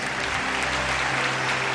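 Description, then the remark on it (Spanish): An audience applauds the King of Kings in a steady, dense wash of clapping at full volume, with a low sustained hum underneath and no talking. “Dale un aplauso al Rey de Reyes.”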